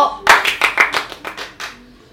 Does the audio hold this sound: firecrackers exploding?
no